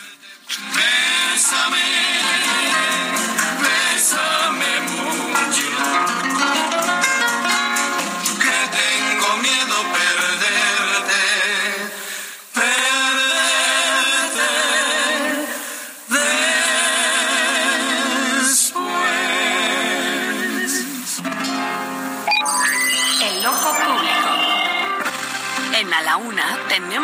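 A bolero song recording plays throughout, a wavering sung melody over full, steady instrumental accompaniment, loud and continuous with two brief dips partway through.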